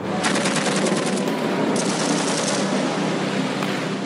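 Rapid bursts of machine gun fire from Guatemalan Air Force aircraft firing on Mexican fishing boats in the Pacific rattle over a steady, loud roar, the rattling strongest at first and then blurring into a continuous dense wash of noise.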